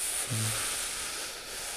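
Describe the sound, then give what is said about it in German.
A voice imitates an air conditioner running in a room with a steady, breathy hiss held for nearly two seconds, even in loudness, with a brief low hum near the start. “oder wenn eine Klimaanlage im Raum ist, die an ist und du, du hörst einfach nur diesen gleichmäßigen, dieses”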